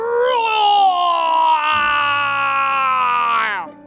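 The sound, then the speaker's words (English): A person voices a long, loud, strained roar imitating a tiger, one sustained cry lasting several seconds before cutting off abruptly. “Spotty Tiger used all his strength and roared so loudly that he finally sounded like the others, or almost.”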